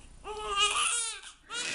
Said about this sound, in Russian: Так что вот эти вот мои письма, это, видимо, такой вольный перевод на русский язык вот этого самого плача новорожденного, его первого крика.